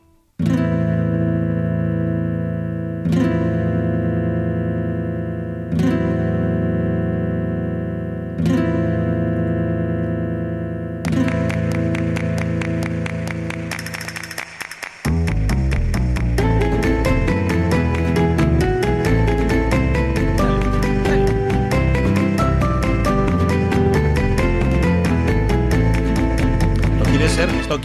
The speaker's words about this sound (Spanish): vamos a meter una pieza musical que es del Final Fantasy IX